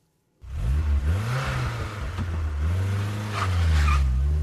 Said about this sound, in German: keine gute Idee, so loszufahren. Der Motor mag es nicht und schon gar nicht die Reifen. Die werden da ganz besonders abgerieben.